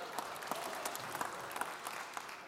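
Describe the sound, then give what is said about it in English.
An audience applauds themselves after singing "Hosanna" together, a dense, steady wash of many hands clapping, sustained throughout with scattered sharper claps standing out. “Give yourselves a round of applause.”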